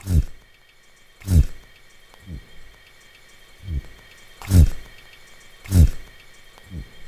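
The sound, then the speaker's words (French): A lobster's low, throaty buzzing recorded underwater, made by a fast-contracting muscle at the base of the antennae vibrating its carapace: about seven short, deep vibrating bursts at irregular intervals, a few punctuated by sharp clicks, over a faint steady background hiss. “Ce bourdonnement, c'est un peu un, euh, son vraiment très basse fréquence, très tonal, euh, un peu un bruit de gorge.”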